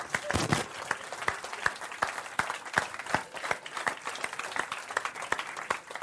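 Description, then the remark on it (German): An audience applauds steadily for several seconds, a dense patter of many hands clapping at a fairly even loudness, with sharper individual claps standing out now and then. “Also Applaus.”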